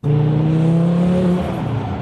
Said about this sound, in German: Merkst du, der Körper geht nach hinten und der Boost ist da, er baut direkt Druck auf und dann kommt das Abgasvolumen dazu und der Krieg beginnt.